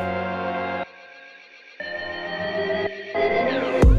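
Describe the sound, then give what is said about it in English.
A drum build-up sample taken from a recording session: sustained, buzzy tones cut out briefly, return, then swell and sweep upward before ending on a sudden loud hit. No one speaks. “That is the build up for drums.”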